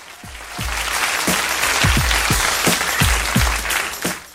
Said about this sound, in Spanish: Y quiero mandar un saludo to, to, to, a mi amiga, a mi queridísima amiga Heidi fuerte el aplauso para Heidi que ya se manifestó.